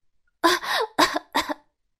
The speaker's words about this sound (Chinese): 阿切！娇娇兔被喷了一脸灰，打了个大喷嚏。